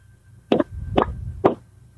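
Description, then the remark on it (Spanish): Three evenly spaced, hollow taps, like knuckles knocking on a thin metal can of about one litre, sound fairly loud about half a second apart over a low background hum, with no talking. “Y escucho que le hacen así como, como un toque así de, mira, de”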